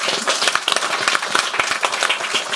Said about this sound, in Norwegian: det bør vi benytte anledninga til å ta en liten applaus for.